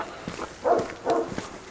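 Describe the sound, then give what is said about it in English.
Two short dog barks, spaced about half a second apart, ring out over faint background noise and soft scuffing sounds, in a village near Poděbrady. “Some dog is barking there, so I think I, I don't know where we are.”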